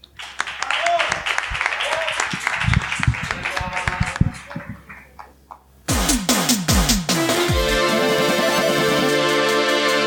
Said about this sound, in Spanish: Y nada, pues un fuerte aplauso para todos ellos y luego nos vemos.